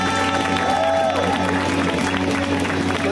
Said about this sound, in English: I need a big round of applause, everybody, for the incomparable Jonah Ray. Let him hear it, Jonah!